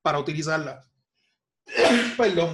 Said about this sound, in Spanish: acabo de estornudar, no tengo COVID.